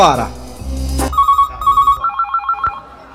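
A telephone rings with a rapid, warbling electronic trill in quick repeated bursts, heard over the line after a short burst of noise at the start, as a call is placed to the firm Propina Construções.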